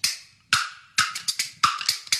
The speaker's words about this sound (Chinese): 打竹板儿来科普，人生命要守护。